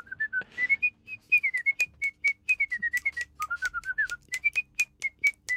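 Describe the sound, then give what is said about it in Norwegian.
A person whistles a lively tune, a steady run of short bright notes rising and falling in pitch, with no talking over it. “Det er så flink du er til å plystre.”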